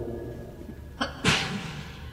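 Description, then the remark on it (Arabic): A single sharp sneeze, preceded by a quick inhaled catch of breath, moderately loud against a quiet background. “رحمك الله”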